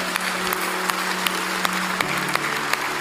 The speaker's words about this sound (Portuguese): Vamos aplaudir aquele que tem um nome que é sobre todo nome.